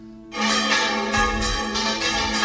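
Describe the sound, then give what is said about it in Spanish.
Church bells rung by hand in the Spanish manual bell-ringing tradition, recognized by UNESCO as intangible cultural heritage, in a loud, dense peal, overlapping strokes clanging with long metallic overtones and a steady rhythm of repeated strikes, with no voices. “Aquí están las campanas, el toque manual de campana español, patrimonio cultural inmaterial.”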